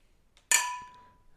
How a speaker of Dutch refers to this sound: Laten we gewoon even lekker gaan klinken.